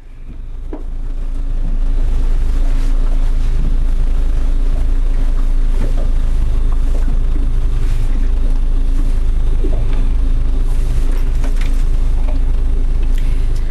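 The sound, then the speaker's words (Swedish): The engine of a researchers' motorboat, half covered with the helm under a roof at front right, runs steadily by a red boathouse on the island of Själö in the Baltic Sea: a loud, continuous low rumble with a droning hum and occasional faint mechanical knocks, holding even throughout. “Motorn är redan igång”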